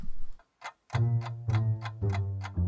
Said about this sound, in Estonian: on hommikune aeg ja tiksub kell.